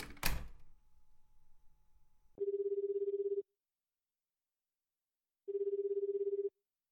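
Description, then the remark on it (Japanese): A smartphone call ringback tone after dialing on the phone's screen sounds twice. Each steady buzzing burst lasts about a second, with a long silent gap between, and is preceded by a brief thump and low rustling. “気づけば俺はスマホのダイヤル画面を指で操作していた”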